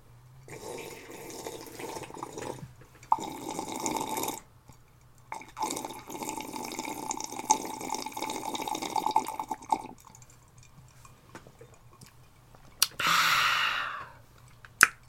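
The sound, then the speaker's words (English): Someone sipping tea: a few drawn-out, airy slurps of liquid with brief pauses between them, then a sharp breathy exhale near the end. No one talks. “Let me sip my tea and let you think about it.”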